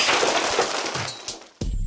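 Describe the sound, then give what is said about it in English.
Glassware is smashed with a baseball bat in a rage room in Atlanta: a loud crash with bright scattering debris, followed by a quieter pause and then a heavy blunt strike as another smash begins. “That noise is from my coworker, Tamika Campbell, who's smashing glassware at Atlanta's Rage Room”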